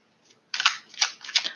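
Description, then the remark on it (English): Crisp papery riffling of a new Modern Witches Tarot deck being shuffled, coming in a few quick surges after a brief quiet start, with no voices. “I am shuffling the Modern Witches Tarot.”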